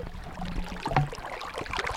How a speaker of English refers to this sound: We're here by a beautiful stream after days of just the worst water ever just pools of puddles of crap. We're next to an absolutely stunning little stream.